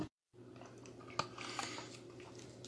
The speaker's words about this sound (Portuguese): Peraí que eu vou tomar água agora, pessoas.